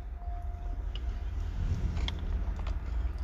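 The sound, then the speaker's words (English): Chewing with a few sharp crunches scattered through it as someone eats, irregular and fairly quiet, over a low steady rumble. No one speaks. “Ooh, man, all this munching and crunching. I hope it's not uh, affecting the audio too much.”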